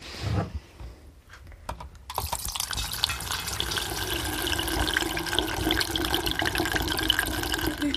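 Young wine is poured out and decanted into a container sterilized beforehand with hot water: a continuous gush of liquid splashing that starts after a brief pause and keeps flowing, growing slightly fuller toward the end.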